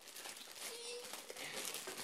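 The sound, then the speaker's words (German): Continuous crinkling of plastic packaging, a dense papery rustle that keeps going for a couple of seconds with small crackly bursts and no pauses. “Jetzt raschelst du halt wirklich hier rum, oder?”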